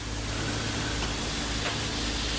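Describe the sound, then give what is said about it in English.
A coastal lyric cicada (Lyricen virescens) buzzes in a steady, unbroken drone, a harsh grinding hiss that holds at an even loudness throughout with no voices. “Coastal lyric cicada.”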